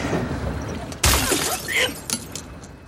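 A glass bottle shatters with a sudden loud crash about a second in, followed by scattered tinkling shards settling for a moment afterward. No voices.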